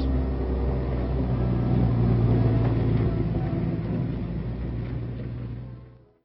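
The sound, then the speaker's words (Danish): Heavy construction machinery engines rumble in a loud, steady, low drone with a throbbing mechanical hum, holding constant for several seconds before fading out, as machines build the runway at Thule Base, spreading stones, asphalt and gravel and rolling the layers. No voices are heard. “Læg mærke til maskinerne.”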